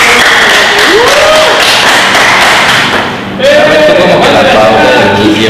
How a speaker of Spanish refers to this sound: Igual a todo el staff, así porque estamos llenos de gente. A ver, aplaudan, aplaudan para que sepa